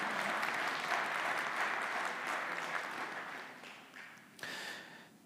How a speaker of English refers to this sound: Someone started to clap. That's worth clapping for. Yeah, amen.